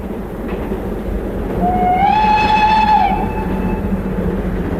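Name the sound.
train running on rails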